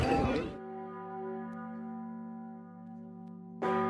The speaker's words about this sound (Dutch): Ja, je hoort het goed. De klokken van onze Sint-Jan luiden weer. De toren is gerestaureerd en vanaf 10 juli kun je weer naar boven klimmen.